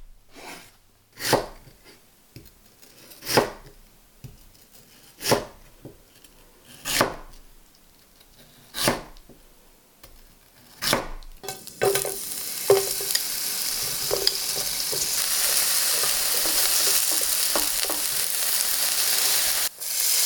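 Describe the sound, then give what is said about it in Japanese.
Lotus root for kinpira is chopped with slow, steady knife strokes, about six sharp thuds, then hits a hot pan in a loud, continuous sizzle with occasional stirring clicks. No one speaks. “今朝はこれからが旬レンコンのきんぴらのいい音それではお聞きください”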